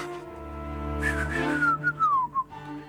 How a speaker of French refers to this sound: Avec la flûte de pan derrière.